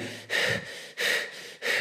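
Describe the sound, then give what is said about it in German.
A person demonstrates rapid, shallow breathing under stress, three quick, forceful breaths in a steady panting rhythm, fairly loud with no talking. “Klar, Sauerstoff muss rein, Sauerstoff muss rein, ja, weil man da auch natürlich atmet wie ein Verrückter unter Stress.”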